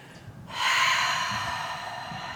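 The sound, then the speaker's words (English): A long, steady inhale drawn in through the nose, breathing down to the base of the spine in a Kundalini breathing practice, starting abruptly and holding a soft, airy hiss for nearly two seconds, with no talking. “So we're just gonna breathe down to the base”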